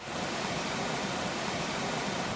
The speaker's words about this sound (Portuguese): A imagem de ontem mostra a água invadindo o prédio.